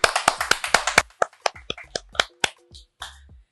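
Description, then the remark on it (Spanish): A short round of hand clapping from a few people welcoming a guest onto a show: quick, sharp claps at first that thin out into scattered, softer claps before stopping. No one speaks. “Un aplauso.”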